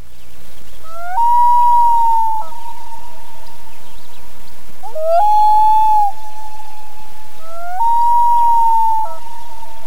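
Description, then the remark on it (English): A loon's wailing cry, repeated three times: each long, eerie call swoops upward and then holds a steady, mournful tone, echoing over a soft, rain-like hiss. “Somewhere, masked within that sad, mournful, unearthly, half laughing, half wailing cry of a loon, I can hear my little brother warning me that the shadow men are near.”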